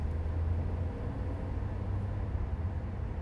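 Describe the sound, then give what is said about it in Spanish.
Steady low rumble of a car cabin in motion on the way to Mar del Plata, Argentina, with road and engine noise humming continuously at a moderate level and no voices. “Estoy en el auto en camino a Mar del Plata, o Mardel.”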